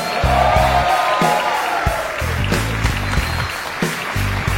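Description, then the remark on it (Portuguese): A stand-up comedy show audience at Comedy Sampa applauds steadily for several seconds as a comedian is introduced, a dense, even clapping roar, while a thumping low musical beat with bass notes pulses underneath. “Esse rapaz que é, faz parte do grupo, um grupo do momento da comédia stand-up, do Quatro Amigos, senhoras e senhores, aplausos”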